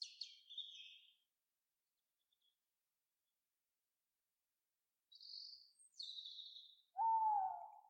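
Owl calls in a quiet night forest: a few short, high chirping calls separated by long silence, then a louder, lower wavering hoot at the end.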